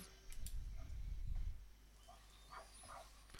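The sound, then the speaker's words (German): Heavy, excited dog breathing: a loud, rough burst of huffing and panting for about a second, then quieter snuffles and small movement noises. “ist jetzt ein bisschen wilder, der atmet ein bisschen laut.”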